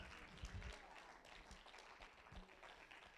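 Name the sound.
audience clapping hands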